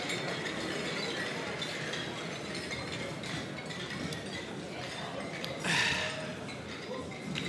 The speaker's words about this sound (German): und da bin ich wirklich glücklich, da möchte ich jetzt einfach mit euch anstoßen. Prost miteinander.